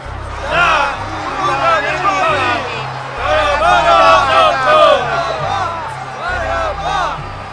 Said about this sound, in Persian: آنها همه فریاد کشیدند